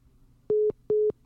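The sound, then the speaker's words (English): Two identical electronic beeps from a phone call dropping out, each a steady mid-pitched tone about a fifth of a second long, evenly spaced and loud against a quiet hum, with no talking. “Oh, and now he just boop boop boop me.”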